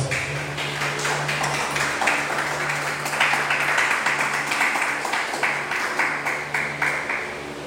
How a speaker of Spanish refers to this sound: Amén. Dar un aplauso a Dios.